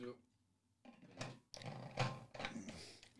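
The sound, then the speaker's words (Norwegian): A dog barks a few times behind a closed door in another room of a home, the barks muffled and coming in short, uneven bursts against a quiet indoor background. “Vi lukka igjen døra, prøvde å gjøre alt mulig her for at de ikke skulle høre den, men jeg kan ikke være aleine hjemme, den bikkja.”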